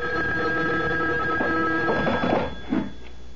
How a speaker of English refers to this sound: A phone. At this hour? I'll get it. You, you stay here.